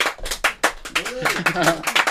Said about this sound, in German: Wir haben Applaus. Ich weiss nicht, ob die Gäste das gehört.